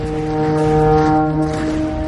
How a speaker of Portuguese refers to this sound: quando vocês veem um exército se aproximando do castelo. Ah, que legal! Tocando corneta.